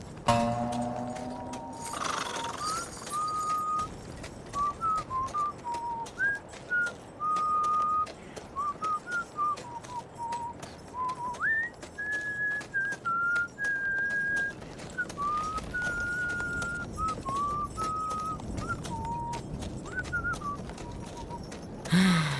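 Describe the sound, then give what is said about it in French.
A man riding a horse whistles a wandering tune for about twenty seconds in the Nevada desert in 1880, late afternoon, the notes clear, with a soft rhythmic clopping of the horse's hooves and outdoor rustle underneath. “Je le transporte sans rien dire et il sifflote.”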